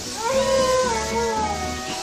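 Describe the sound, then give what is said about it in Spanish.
A Mexican prairie dog alarm call, given when a predator comes too close: one drawn-out, wavering, high-pitched cry with a bright harmonic tone that rises and dips before fading, over a steady hiss of background noise. “y cuando se acerca demasiado, damos un grito de alarma.”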